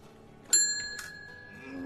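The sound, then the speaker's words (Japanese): A bus stop-request bell chimes twice, two bright metallic dings about half a second apart, each ringing on with a sustained tone. It is fairly clear, with no talking. “そうするとチャイムですかねチャイムだと思いますじゃあこれですか違いますええー、もっとチンという貧乏臭い音ですいやそれじゃこれですよ”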